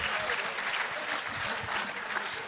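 Steady applause, a dense patter of many quick hand claps running continuously at an even level for the whole stretch, with no break or voices on top.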